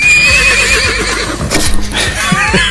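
A loud horse whinny with a shrill, trembling pitch that wavers throughout, followed by breathy snorts and a few low thuds, with no talking over it.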